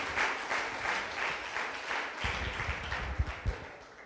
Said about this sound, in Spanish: Le hemos dicho antes que dierais un aplauso por lo bonita que ha quedado la iglesia.